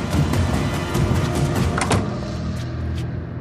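A door swings and is caught with a few brief clicks and knocks, the sharpest near the middle, over a steady low rumble of background noise. No one speaks.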